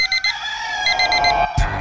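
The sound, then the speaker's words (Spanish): A loud alarm clock rings with rapid repeating electronic beeps in short bursts, ending abruptly with a brief click or thump. “Suena el despertador.”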